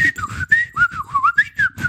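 Breathy flute tones play quick, speech-like phrases that slide up and down in pitch, in several short bursts with soft low pulses underneath, standing in for a character's dialogue in a hand-drawn video game.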